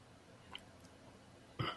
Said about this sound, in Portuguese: Não, não, eu sou engoli saliva